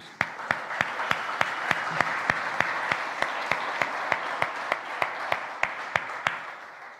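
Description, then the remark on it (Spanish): Sustained audience applause given to Jesus, a dense wash of clapping with a steady rhythmic beat of sharp, unified claps about three to four per second running throughout, with no talking. “Le damos otro aplauso a Jesús.”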